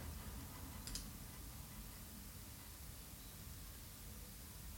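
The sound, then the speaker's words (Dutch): A faint, steady electronic hiss with a brief click near the start; the noise dips slightly and settles low, with no voices. “Dan gaat er ook een eh, kleine ruis en neemt af.”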